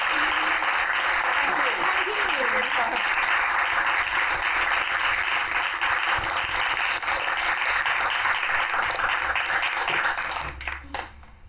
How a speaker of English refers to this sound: so a, a round of applause. Thank you.